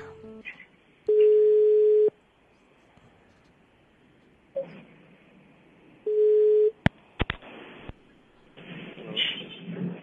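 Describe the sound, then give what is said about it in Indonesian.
A phone ringback tone sounds twice, each steady buzz lasting about a second with a pause between, followed by a few sharp clicks and faint background rustling and muffled voices. “nanti kalau sudah ada uh, nada sambung iya.”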